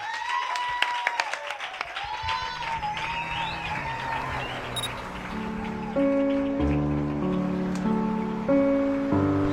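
A crowd applauds with dense, steady clapping and a few whistles or cheers at a live concert at Café La Palma in Madrid. Partway through, sustained musical notes begin and play under the continuing applause.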